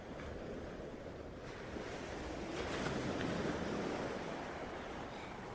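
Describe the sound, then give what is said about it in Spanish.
Soft ocean waves wash in with a steady hiss of surf, swelling gently toward the middle before easing back, with a light breath of wind and no voices. “Las olas poco a poco se van calmando y ese barco navega cada vez más y más tranquilo.”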